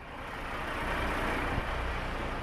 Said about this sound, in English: On the East Boston waterfront, an endless flow of cranes and dump trucks paves the way for luxury housing.